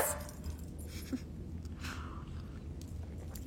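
A dog named Kalima whimpers softly a few times, thin high whines rising briefly over a steady low rumbling background, without any talking.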